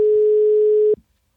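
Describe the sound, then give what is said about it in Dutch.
A single steady telephone ringing tone on the line, a loud, clear hum lasting about a second before cutting off abruptly with a faint click, with no voices. “Ja, gaat hij over? Of nee, niet? ik hoor weinig. Ja, nu ja, wel.”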